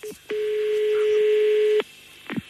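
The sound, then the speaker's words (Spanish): A single steady telephone tone sounds for about a second and a half over faint line hiss, followed by a couple of soft clicks, as if handling the phone, during a call to a landline. “Pero mire, yo le estoy llamando al fijo porque a lo mejor era un problema del móvil y se oía malamente.”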